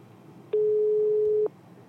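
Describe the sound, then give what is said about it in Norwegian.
A single steady telephone ringing tone as a call is being placed, one flat beep lasting about a second, sounds clearly over a quiet low hum, with no talking. “Du, jeg ringer.”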